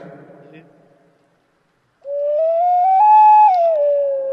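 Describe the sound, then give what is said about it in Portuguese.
A brief stretch of speech, a pause, then a loud, pure ocarina tone played with reverb holds steady, climbs in two small steps to a higher note, and drops back down. “Por favor, ocarina nesse momento. Técnica reverb.”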